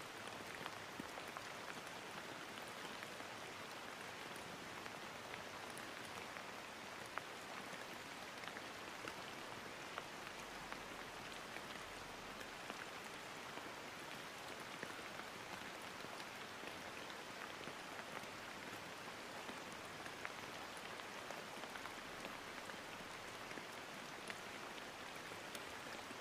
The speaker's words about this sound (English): Return your awareness to the sound of the rainfall around you. Really, really listen. Lend your full attention to the sound of the rainfall around you.